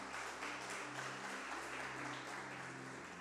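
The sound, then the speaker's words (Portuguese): A church audience applauds Jesus in a dense, steady wash of many hands clapping at once, sustained at an even loudness throughout, with low held tones humming faintly underneath. “E pode aplaudir a Jesus com força.”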